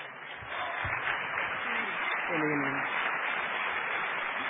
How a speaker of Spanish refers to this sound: Un aplauso para ella.